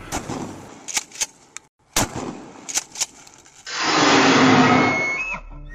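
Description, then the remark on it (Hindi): Two sharp, loud gunshots crack out one after another with short gaps between them, fired at a creature about 20 feet away, then a long, harsh roaring wail of very loud screaming swells up and carries on for a couple of seconds. No one speaks. “भैया ने डरते हुए दो गोलियां चला दी उस पर और गोली चलाते ही बहुत जोर से चिल्लाने की आवाज आई”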